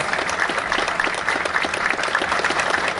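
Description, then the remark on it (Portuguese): Sustained applause from a large crowd as a memorial minute of noise in front of the former Boate Kiss nightclub, marking ten years since the night of 27 January 2013: a dense, steady wash of many hands clapping at once, loud and even throughout with no voices rising above it. “Nosso minuto do barulho uma grande salva de palmas.”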